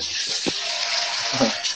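Pond water runs in a steady, hissing rush, fairly loud, with a few soft low knocks underneath and no pause for the full moment.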